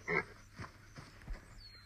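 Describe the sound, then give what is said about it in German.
A pig grunts in a video game: one loud, rough squeal-like grunt, followed by a few softer, low snorting grunts spaced about a second apart. “Ich Schwein.”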